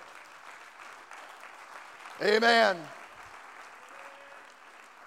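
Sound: audience hand clapping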